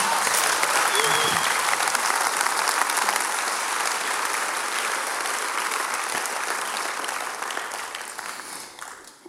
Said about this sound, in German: Einen Applaus Bitte, für dich.